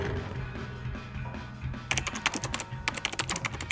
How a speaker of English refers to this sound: As afternoon turned to evening, Khalil turned his attention to typing his world history essay